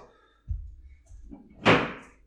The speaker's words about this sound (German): Was war das? Achso, das war ein Bier wahrscheinlich im Kühlschrank, was runtergefallen ist.